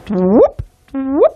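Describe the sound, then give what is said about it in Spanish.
A voice imitates the rising chirp of gravitational waves turned into sound, twice: a low hum sweeping upward to a sharp peak, separated by a brief plop-like click, clear with no other talking. “acuérdate que cuando hay ondas gravitatorias, el, si las transformas en sonido, esto suena como...”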